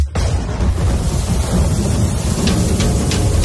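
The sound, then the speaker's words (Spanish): Steady, heavy rain hisses throughout during a carnival in San Pedro Sula, beneath a deep, continuous rumble of thunder. A few brighter crackling bursts come near the end. Loud and unbroken, with no voices. “¿Cuándo fue la última vez que no llovió en un carnaval de San Pedro Sula?”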